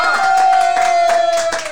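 An audience applauds the evening's guest with a dense, steady wash of clapping, loud and unbroken, while a thin sustained whistling tone runs through most of it.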